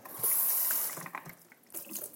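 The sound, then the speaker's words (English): Tap water runs in a steady hiss as the lid of a Vitamix blender is rinsed out, the flow breaking into uneven splashes and patters as the lid shifts under the stream, with no one talking. “And I put the uh, Vitamix blender thing, which is rinsed out, because it didn't sit. You don't need to wash it. I've learned, and uh, rinse out the lid”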